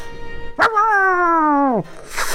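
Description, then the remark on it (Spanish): A dog gives one loud, drawn-out bark, stretching into a held, howl-like tone that sags in pitch before cutting off, followed by a brief noisy rustle. No one speaks. “Perro maldito pierdes tu pierna izquierda, mm, te arranca la pierna.”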